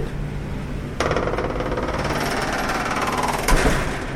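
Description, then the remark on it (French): A heavy restaurant door on rue d'Aguesseau, near the Élysée, grinds and rattles open, a loud, continuous mechanical juddering that starts abruptly and swells again with a second jolt near the end, over a low background hum. The door has not opened normally for a year. “Elle est sonore, mais parce que ça fait un an qu'elle a... Alors. Qu'elle s'ouvre plus comme d'habitude.”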